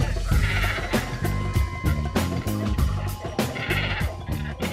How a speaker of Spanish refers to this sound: Se manifiestan los sonoros y guturales ronquidos que emite el cormorán grande, un ave de gran tamaño, plumaje negro y de fácil observación en nuestros humedales debido a que habita aquí durante todo el año.